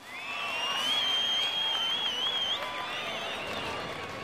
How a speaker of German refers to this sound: Wirkungsvoll ist der Pfiff nicht nur als Kommando, sondern auch als Applausform bei einem Rockkonzert.